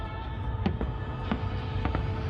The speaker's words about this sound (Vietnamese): Tiếng reo hò đếm ngược, tiếng pháo hoa rộn ràng cùng những bữa tiệc ánh sáng đa sắc màu rực rỡ